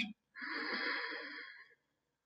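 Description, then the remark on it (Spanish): A single long, deep breath drawn in steadily for over a second during a meditation breathing exercise, airy with a breathy hiss, after a brief short sound at the start; silence follows. “Inhala largo y profundo.”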